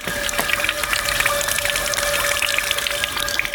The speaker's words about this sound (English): That is one of the uh, public fountains, and they are all over the city. And this water is actually drink drinkable water. It's high quality water, um, and it's available everywhere in the city for everyone.